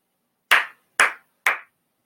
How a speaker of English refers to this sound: Uh, I'm actually gonna give another round of applause to Melvin Gordon because Melvin Gordon has to be the most underrated back in the NFL right now.